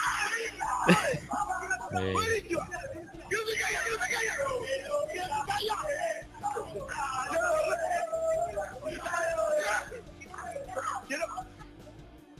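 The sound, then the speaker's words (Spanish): Several Argentine people shout and yell loudly and excitedly, with drawn-out cries rising above a busy stretch of overlapping talk that continues nearly the whole time. “Me encanta los argentinos que cualquier cosa gritan.”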